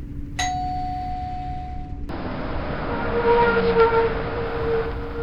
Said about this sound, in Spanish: Cuando la señorita Georgina se levanta y no alcanza el timbre, Santoyo va hacia ella y timbra.